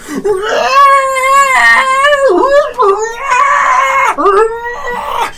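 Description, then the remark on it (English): A loud, ear-piercing creature screech, like many voices crying out, rises and wavers in long, strained wails, breaking briefly before surging again, shrill for several seconds with no talking. “Many voices crying out as he, your ears are almost deafened by the ear piercing screech.”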